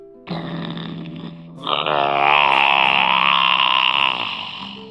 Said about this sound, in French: J'ai essayé de réveiller Elliot, mais bah, il bouge pas d'un cheveu. Enfin, je sais pas si on dit un cheveu pour un, un dinosaure. Il bouge pas d'un poil, quoi. Écoutez-moi son ronflement.